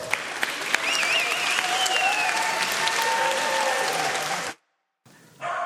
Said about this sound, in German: Und jetzt, wenn ihr schon alle steht, gebt einen herzlichen Applaus, währenddem, dass sie hinter den Gang hinterlaufen und dort von den Teenie in Empfang genommen werden.